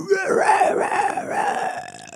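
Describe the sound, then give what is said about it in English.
A voice imitates the whisper scream from a rock song: a raspy, breathy, strained sustained cry lasting about two seconds with a wavering, pulsing pitch, fairly loud, fading slightly at the end. “And then he does the whisper scream.”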